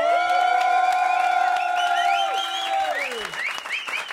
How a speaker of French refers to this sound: L'émission spéciale en duplex du théâtre de la Loge. Faites du bruit le public Est-ce qu'ils sont chauds Est-ce que le public est chaud ce soir, vendredi Est-ce que le public est bien chaud